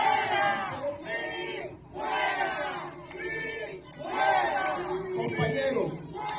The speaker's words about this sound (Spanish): Y Allí en el Partido Popular Democrático en Puerto Tierra se formó un salpafuera brutal, porque mira lo que ocurre, escuchen lo que ocurre cuando el secretario del partido, Luis Vega Ramos, está hablando.